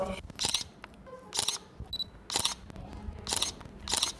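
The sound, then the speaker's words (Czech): Five crisp camera shutter clicks fire at a steady pace, about one per second, with a short electronic beep between the second and third, as a photographer tests the camera and presets its ISO and other functions before filming. Background is otherwise quiet. “zkouším foťák, aby potom byl připravený, abych potom nemusel zbytečně na to spěchat a měl tady přednastavený ISO a další funkce toho foťáku.”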